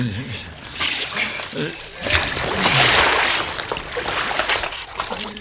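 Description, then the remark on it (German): Water sloshes and splashes continuously as someone wades through cold water toward the shore, helping another person out of the water, with surging, churning bursts building in the middle, while a voice speaks underneath. “Sie müssen sofort raus aus dem Wasser sonst erfrieren Sie.”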